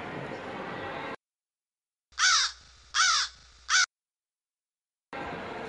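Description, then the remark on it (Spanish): Three loud, harsh crow caws from a bird attack in the film The Birds ring out, the first two long and drawn out, the last short and clipped, set between stretches of dense, hissy noise. “Audios los pajaros”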